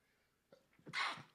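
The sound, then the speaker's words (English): A single sharp sneeze bursts out, preceded by a couple of quick breathy inhales and ending with a short exhale. “Bless you.”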